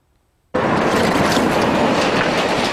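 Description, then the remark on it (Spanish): A train suddenly roars past after a moment of silence, a loud, dense rumble with steady clattering of wheels on the rails and no voices. “ha convertido en un problema de movilidad donde cientos de residentes se ven importunados por un cierre debido al paso de algún tren.”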